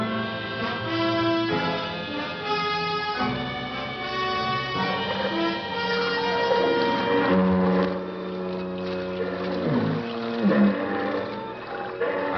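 Several deep, droning foghorns blow in overlapping, sustained tones of differing pitch, some close and loud, others more distant, swelling and fading over one another with no voices.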